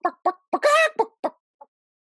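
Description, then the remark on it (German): A person imitates a clucking chicken: a series of short, rhythmic clucks with one drawn-out squawk in the middle, then a final faint cluck, clear with no other talk. “Jetzt kannst du nochmal machen, wie der Bär macht. Äh, und wie macht das Huhn?”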